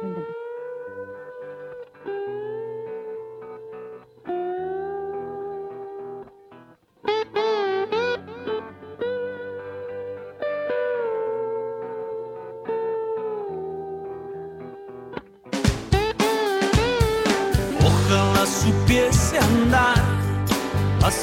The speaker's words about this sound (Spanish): Bueno, vamos em, a escuchar una canción. Vamos a escuchar una canción que ya les voy a decir cuál es. Eh, acá la tengo.